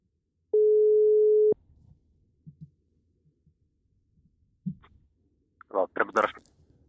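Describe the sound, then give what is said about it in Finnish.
A single steady telephone ringing tone sounds loud for about a second as a number is dialed, then cuts off, leaving near silence with faint soft knocks before a short burst of voice at the end. “Pitäisikö mun laittaa tuosta Tuommoinen numero. Jahas. kokeillaan. Lähteekö tää tuuttaa? Kuuluuko? Kuuluu.”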